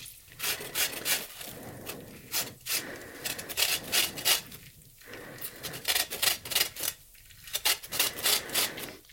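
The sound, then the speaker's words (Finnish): Washed organic lemon peel being grated: a steady run of quick, raspy scraping strokes, repeating in an uneven rhythm with short pauses between bursts, fairly quiet and with no talking. “Ja sitten tota, raasta vähän pestyn luomusitruunan kuorta mukaan.”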